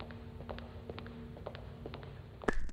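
Slow, evenly spaced, long male footsteps approach outside over a low background hum, followed by a sharper, louder soldierly knock on a door near the end.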